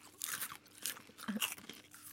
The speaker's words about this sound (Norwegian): så bare spiser vi i vei, og så hører vi om dette er irriterende når du er på kino.